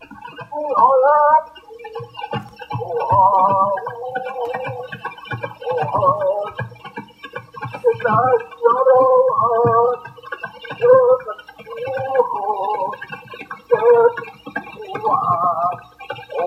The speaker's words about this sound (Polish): odtworzono dźwięk zapisany na tych e, wałkach, dzięki czemu możemy słuchać tych ainuskich e, pieśni sprzed ponad 100 lat. No, oczywiście, no, tak jak mówię, dźwięk jest mocno zniekształcony, ale coś tam słychać.